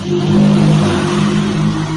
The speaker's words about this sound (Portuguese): E que tem barulhos de moto passando pela casa dele ali.